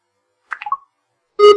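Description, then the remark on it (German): An iPhone barcode scanner, held over the back of a book, makes a quick cluster of soft ticking blips, then a short pause and one loud, bright electronic beep, with no voices. “Okay, ich löse jetzt das Scannen wieder aus. Wir hören dann wieder den Piep und das Ticken.”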